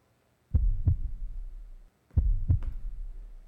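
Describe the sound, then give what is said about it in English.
A heartbeat sound effect in a CHGO promo video: two deep heartbeat thumps, each a quick lub-dub pair, repeat about a second and a half apart, loud, with a low droning rumble sustaining between beats and no voices. “Well, oh, the heartbeat, the heartbeat of Chicago.”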